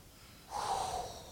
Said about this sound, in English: You guys ready for this? Here we go. Let me take a deep breath.